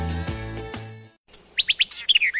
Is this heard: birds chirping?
yes